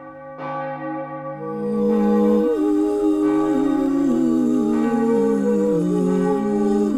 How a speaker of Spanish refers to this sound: La antigua torre de una iglesia empezó a sonar, su campana laboriosa pareciéndole a Scrooge más profunda y siniestra que nunca antes.